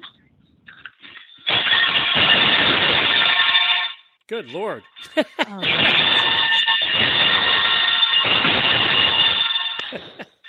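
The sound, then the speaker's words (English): Loud, clanging warning bells, rung by hand, sound continuously in two long bursts, harsh and metallic, with a brief gap between them where people exclaim and laugh. “But, but you see, there there's your communication to get out of the way because they you would hear those bells.”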